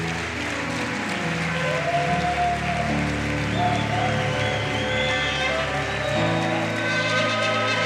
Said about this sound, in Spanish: Amén y amén. Un fuerte aplauso.